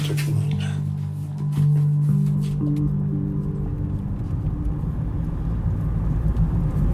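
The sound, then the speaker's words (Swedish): Steady low engine rumble and road noise from inside a couple's moving car on the way to Olshäll, with occasional clicks and shifts in tone, continuous throughout and fairly loud. “Morgan Hult och hans fru Heidi sitter i parets bil. Vi är på väg till Olshäll.”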